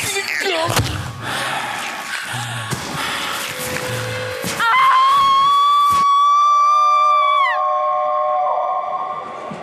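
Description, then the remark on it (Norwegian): A voice imitates a wolf howl: a long, loud, wavering tone that holds steady for a few seconds before sliding down, preceded by a stretch of thumps and clattering noise, in a Radioteatret radio drama of the book 'Døde menn går på ski'. “Til pokker med det. Ulvar!”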